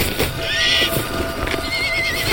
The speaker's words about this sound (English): The noises that escape the horse's throat, desperate and gasping and crying for release